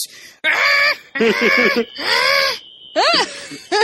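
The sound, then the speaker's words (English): A voice imitates a fire alarm chirp with a run of loud, nasal, honking bursts in quick succession, then a brief thin tone and a rising-falling squeal, alone. “So your fire alarm sounds like a bunch of crickets.”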